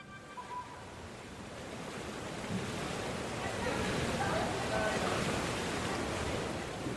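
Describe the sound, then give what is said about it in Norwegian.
Indoor swimming pool hall ambience at Ado Arena in Bergen, Norway's main facility for swimming and diving: a dense, echoing wash of splashing water and indistinct voices, steady throughout and swelling slightly louder midway. “Jeg står eh, inne i svømmehallen Ado Arena.”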